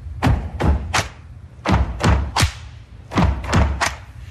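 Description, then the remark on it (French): Three groups of three sharp, loud hand claps in a steady rhythm, each hit crisp with a short pause between groups, and no voices. “Ok, sur le troisième, on tape des mains.”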